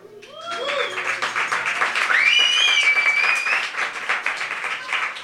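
Sustained audience applause, a dense wash of many hands clapping that swells quickly and holds steady, with high whistles and whoops rising above it and faint voices mixed in.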